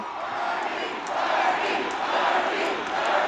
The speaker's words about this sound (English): This is the sound of 9,000 passionate supporters attending a political rally. The candidate is Bernie Sanders, the Presidential hopeful who has derived much of his support from younger voters, a group not typically involved in politics.